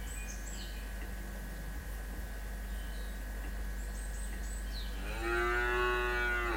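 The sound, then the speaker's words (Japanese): A single long, loud cow moo, given as a greeting to people joining a live stream, with a low, rich, slightly rising tone, bursts in near the end after a stretch of steady low hum and a few faint high chirps. “はい、来ていただいた方には、牛の挨拶で。”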